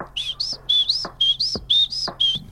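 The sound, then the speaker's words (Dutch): Someone whistles an imitation of a great tit call: five quick, high two-note phrases in a steady, bouncing rhythm, fairly loud, with a few soft low thumps in between. “Ik ga even het geluid van een koolmees nafluiten...”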